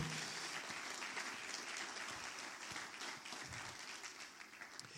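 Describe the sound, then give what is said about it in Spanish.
At a morning church service, an audience gives Jesus loud, sustained applause. The clapping is a dense, even wash of many hands that holds steady for several seconds, with no one speaking over it. “Alguien que le dé un aplauso fuerte a Jesús en esta mañana.”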